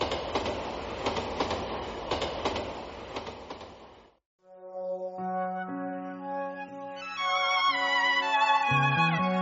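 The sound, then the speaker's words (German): Passenger train No. 7269, which serves as a school bus for students in a mountain region, rumbles steadily along the rails with a rhythmic clickety-clack of wheels for about four seconds, then cuts off as melodic music with sustained tones begins. “Einige Schüler machen im Zug Nummer 7269 ihre Hausaufgaben. Der Zug gilt als Schulbus für Schüler in der Bergregion.”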